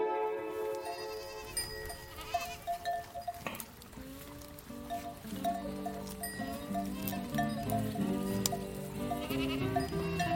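Goats bleat again and again, several wavering calls overlapping one another, with a steady, busy animal chorus and no one speaking.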